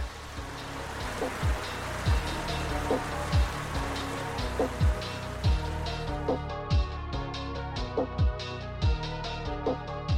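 Steady rain hisses throughout, falling on a ruined castle in the woods, with a rhythmic low thumping beat and faint tonal music running underneath. No one speaks.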